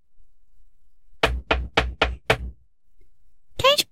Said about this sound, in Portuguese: Enquanto a menina se distraía, o boto nadou até a casa da avó e bateu na porta.